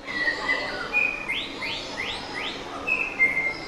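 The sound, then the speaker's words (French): A male white-rumped shama sings: clear whistled notes, then a run of four quick rising sweeps, and more high whistles at the end, with no voices. “Le shama à croupion blanc”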